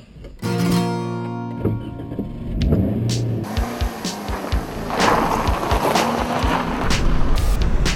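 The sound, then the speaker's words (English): The engine of a Toyota compact MPV with a 1.33-litre engine hums steadily at first, then gives way to continuous road and tyre noise as the car drives along, with occasional soft bumps and thuds, heard from inside. “It's a sweet little thing to drive I like the way that Toyota label the engine in this car.”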